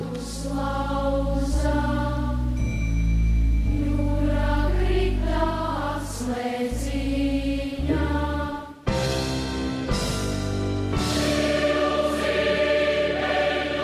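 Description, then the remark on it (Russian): A huge mass choir of children and adults in national costumes sings a slow Latvian song in full, sustained harmony, loud and steady, with a brief break before the voices swell back in. “Эта песня а, называется «Солнце, гром Даугава».”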